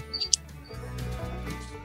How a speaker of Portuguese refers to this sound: Tá barulho agora, ó. Grilo desgraçado.